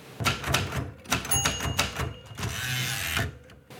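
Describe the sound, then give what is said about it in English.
A manual typewriter clacks through a burst of sharp keystrikes, a small bright bell dings, and then the carriage is pulled back to its starting point with a long rattling zip, fairly loud with no voices. “Then, just for the sake of it, she pulled the carriage back to its starting point, point. the bell rang.”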